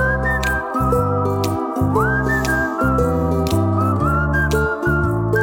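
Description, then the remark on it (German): A whistled melody carries on steadily for several seconds, sliding up between held notes over a loud, continuous musical backing with a thumping bass line. “Pfeif noch ein bisschen weiter.”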